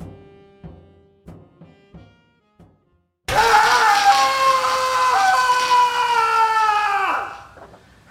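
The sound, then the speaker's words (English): A few soft, short tones give way to a man's loud, sustained scream lasting about four seconds, which wavers slightly before sliding down in pitch and cutting off. “Yeah, that screaming idiot's me.”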